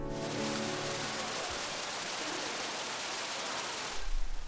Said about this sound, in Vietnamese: Ra khỏi con đường vàng, khung cảnh thác nước khổng lồ đang tuôn chảy những dòng nước mạnh mẽ và mát lạnh hiện ra trước mắt.